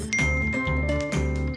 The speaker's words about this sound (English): And that was a phone noise.